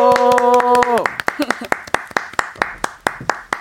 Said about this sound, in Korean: 자 휘인 씨하고 저하고밖에 없지만 뜨거운 박수와 가벼운 함성이요. 와.